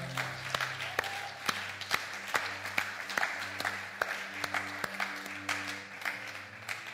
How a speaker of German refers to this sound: Komm, lasst uns mal einen riesen Applaus geben für jeden, der heute die Entscheidung getroffen hat.